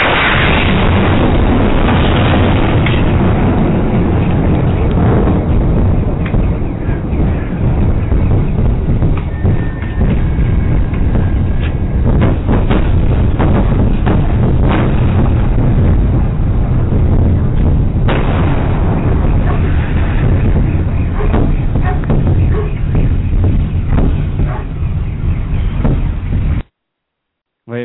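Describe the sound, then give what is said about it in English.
A meteorite airburst over Russia: loud, deep booming that rolls on for nearly half a minute, with a dense run of sharp cracking blasts over a heavy low rumble before it cuts off. “The Russian meteorite. Kaboom.”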